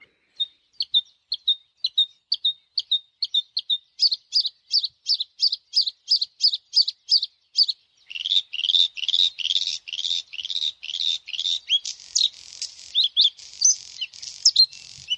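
A bluethroat sings alone and clear: a run of sharp repeated notes that quickens and grows louder, then breaks into a fast, varied stream of buzzy, metallic phrases.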